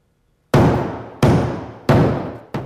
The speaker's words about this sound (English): Where's the hammering coming from? Stop the stop the hammering. Somebody go up there and stop that hammering.